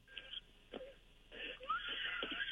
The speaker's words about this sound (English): What's wrong with that kid? Why is, is that your kid that's crying? Yeah, he's screaming.